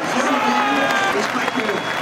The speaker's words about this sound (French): les clameurs des tribunes qui montent comme ça au premier passage des chevaux devant les tribunes, beaucoup d'encouragement et d'applaudissements